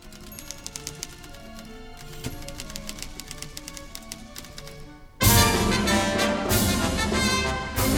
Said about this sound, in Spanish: A la orquesta le puso máquinas de escribir.